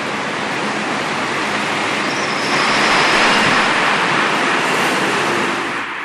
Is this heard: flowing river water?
yes